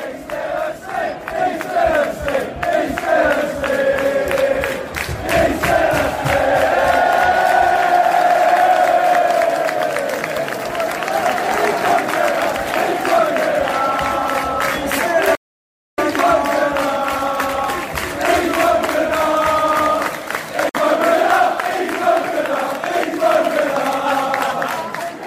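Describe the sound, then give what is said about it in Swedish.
A large crowd of visiting away football fans chants loudly in unison, mocking a Southampton supporter who fell asleep in the stand: a sustained, rhythmic sing-song taunt with rising and falling melodic lines, broken by a brief moment of silence before the chanting resumes. “Eh, och då passade de gästande Baggy Svensson på att eh, håna honom lite. Ni kan ju höra hur det lät här.”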